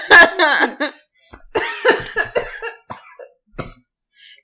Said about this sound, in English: you got me coughing.